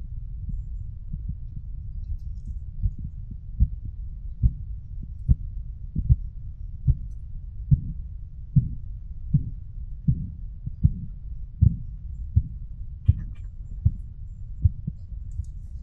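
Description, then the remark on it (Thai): Soft, muffled arterial thumps heard through a stethoscope at the arm over the artery while blood pressure is measured with a blood pressure monitor, beating steadily about once a second, faint at first, growing louder in the middle, then fading again over a low rumble. “อันสุดท้ายละที่ตะกี้เราบอกว่ามีเสียงของตอนที่เราวัดวัดวัดความดันอะด้วยด้วยด้วยเครื่องเครื่องวัดความดันนะเนาะเราก็เราจะฟังเสียงที่แขนเนาะซึ่งก็จะเป็นเสียงของอเส้นเลือดที่เต้นเหมือนกันอลองฟังดู อันนี้ฟังที่แขนตรงที่เส้นเลือดที่จะสนใจ”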